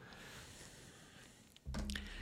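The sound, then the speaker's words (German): After a hushed stretch, a loud, wet nose blow bursts in, a gurgling, sputtering rush of air that carries on to the end with no talking. “Jetzt musste ich doch mal das Näschen, musste ich doch mal das Näschen putzen. Aber er hat schön gegurgelt, gell?”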